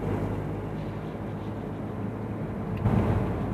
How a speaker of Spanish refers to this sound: De momento, aquí estoy conduciendo, me estoy incorporando a la ronda de Mátaro.